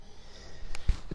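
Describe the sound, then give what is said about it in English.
A single quick sneeze, a sharp breathy burst followed by a soft low thump, with nothing else but faint background noise around it. “God bless. Bless you.”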